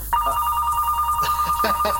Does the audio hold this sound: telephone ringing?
yes